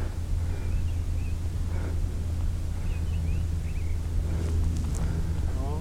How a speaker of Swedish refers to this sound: Men, eh, dubbeltrast va, som sjunger.